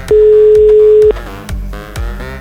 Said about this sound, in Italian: Cioè, ha sentito lo squillo e ha oh. risposto.